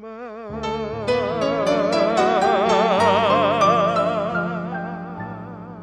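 Final bars of a recorded tango song, with lush vibrato strings and a sustained, swelling orchestral chord that holds steady and loud, no talking over it.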